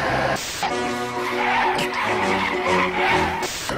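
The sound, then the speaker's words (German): A car's air conditioning fan roars loudly and steadily while cooling the car down on a very hot day, a constant whoosh with a faint tonal hum running through it, and no one speaks. “Eigentlich hatte ich jetzt vorgenommen, die Anmoderation vorzunehmen, aber äh, die Klimaanlage ist jetzt so laut, weil es ist draußen so unglaublich heiß.”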